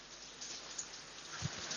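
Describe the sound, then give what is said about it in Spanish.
Steady rainfall in a remote area fills the background with a soft, continuous hiss, broken by a few faint drips or patters, with no one speaking. “¿Lluvia o...? lluvia, lluvia.”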